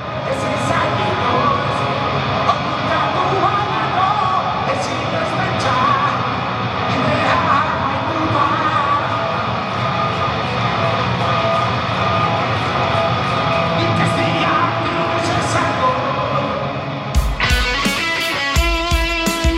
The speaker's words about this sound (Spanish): ha empezado la gente de la Real también a cantarla. A ver, a ver cómo suena, venga, cómo suena, venga, duro, rock duro en la noeta.